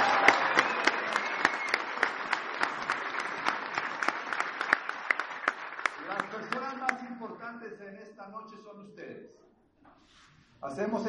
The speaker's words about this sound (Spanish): Ahora sí, un aplauso para ustedes.